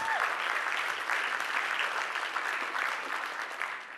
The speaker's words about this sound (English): So can we give these, around, these guys a round of applause for being up here for us?